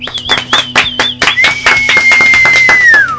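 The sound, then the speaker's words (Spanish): A few people applaud a special guest at the end of the show, clapping in quick, uneven bursts while a long, high whistle rings out over the applause and slides downward at the end. “Gracias un aplauso para nuestro invitado especial.”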